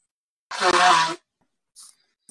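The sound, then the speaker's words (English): A single loud sneeze, a sharp breathy burst lasting under a second, followed by a brief faint sound and then quiet. “Bless you.”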